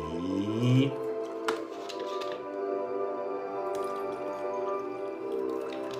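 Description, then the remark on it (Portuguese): Water pours steadily into a glass, the gurgling tone rising at first, then a continuous trickle with a brief clink partway through and no talking. “Deixa eu só colocar água um pouquinho aqui.”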